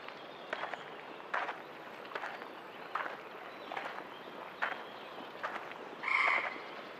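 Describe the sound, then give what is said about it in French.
Frogs croak repeatedly at a steady, evenly spaced pace over a soft, constant outdoor hiss at the shore of Lake Astrakhan, near a power plant, with a higher, brighter call breaking in near the end. No one speaks. “Comme vous pouvez l'entendre, je suis au bord du lac d'Astrakhan non loin de la centrale,”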